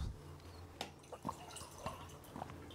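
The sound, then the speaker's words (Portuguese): Water being poured into a glass, coming as a few separate gurgling plinks spaced roughly half a second apart, quiet, with no voices. “Você quer é um pouco mais de água?”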